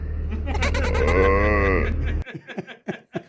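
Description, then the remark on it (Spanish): A person mimics a goat with their voice, a loud, quavering bleat held for about two seconds, followed by a few short bursts of speech. “Yo lo puedo hacer como chiva y como vaca.”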